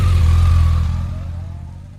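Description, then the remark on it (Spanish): A motorcycle engine revs loudly with a deep, steady rumble that holds strong and then gradually winds down and fades over about two seconds, with no voices, played as a sound effect marking a motorcycle won in a game. “Eh, por fin, gana una moto, ya está, chico. Sonido.”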